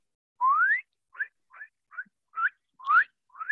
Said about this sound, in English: So it's a um, it's like a I'm not gonna say it's so much like a chirp. Well, I, I guess obviously it is a chirp, but it's like a high pitch.